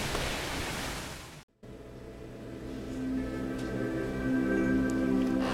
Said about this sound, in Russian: В этот момент дождь все-таки загнал нас в дом, и дальше разговор мы продолжали уже под крышей, в тепле и за чаем.